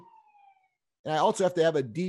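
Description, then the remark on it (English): A police siren wails faintly in a steady, slightly falling tone for under a second at CV Park in La Crescenta, California, and fades out, then a man begins speaking. “Although, in fact, you could probably hear some of the sirens in the background.”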